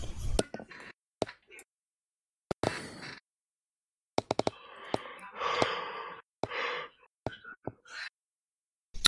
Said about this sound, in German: man hört dich gähnen und ich werde das nicht rausschneiden in der Aufnahme.